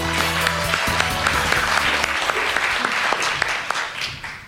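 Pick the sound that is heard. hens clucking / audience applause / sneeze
audience applause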